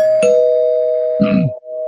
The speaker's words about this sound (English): So this is a spoiler for uh, Wonder Woman 37 from this week. Um. Let me ring the bell.